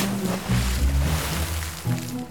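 A big splash as someone falls into a pond, followed by a couple of seconds of steady sloshing and churning, with a low rumbling undertone running throughout.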